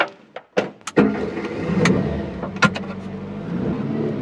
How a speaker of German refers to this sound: Ich stelle mir also vor, ich steige in ein Auto